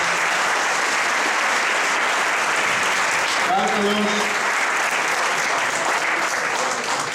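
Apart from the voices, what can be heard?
audience applause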